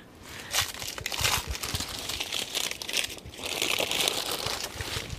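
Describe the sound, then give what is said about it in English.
Sterile plastic instrument packaging crinkles and rustles steadily as it is torn open and handled for an insemination, with a brief quieter pause midway before the crackling resumes, in a natural setting. No one speaks. “Very medical sounds in a very natural setting.”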